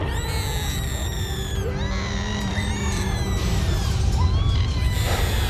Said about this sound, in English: The screams of my loved ones became an eclectic cacophony of sound. So horrific it was impossible to determine who was contributing to it.